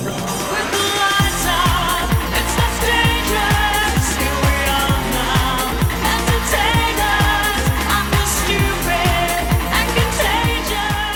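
A pop cover of a grunge song, recorded in 1994, plays loud and upfront, with a steady punchy drum beat, thick bass and bright layered melody lines running continuously throughout.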